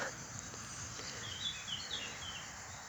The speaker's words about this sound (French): des oiseaux, des insectes, des potagers, des bruits de voix. C'est l'heure de la sieste.